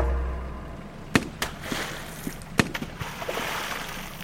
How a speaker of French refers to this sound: Et puis on longe la côte pendant assez longtemps jusqu'à arriver euh, et voir Aden qui se distingue. Et, là, on, entend des tirs.